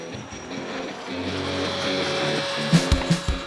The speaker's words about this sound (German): ASMR-Geräusch beim Salzstängeli-Essen?